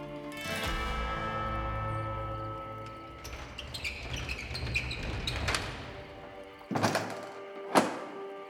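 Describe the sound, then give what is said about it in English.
A heavy metal jail door rumbles and scrapes as it slides along for several seconds, then slams shut with a loud clanging thunk, followed by a second sharp clank as it settles. “Clint suppressed a smile as the jail door slid shut.”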